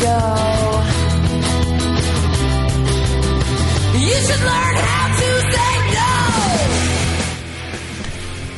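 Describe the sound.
A loud rock song plays, a woman singing and shouting over dense distorted guitars and a steady bass, filling the whole stretch before dropping slightly in level near the end.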